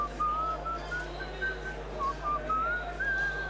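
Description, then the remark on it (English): A person whistles a wandering, slightly off-pitch tune in short sustained phrases, clear over a steady low hum, with no talking. “everyone's at home's just covering their ears now with cheese, out of tune whistling.”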